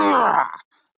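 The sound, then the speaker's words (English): A single loud, strained human scream resembling the Wilhelm scream, lasting about half a second before trailing off abruptly into silence, with a faint click just after. “That sound like the Wilhelm scream.”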